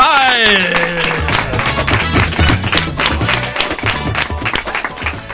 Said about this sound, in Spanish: Dios mío, señoras y señores, un aplauso muy fuerte para el campeón de España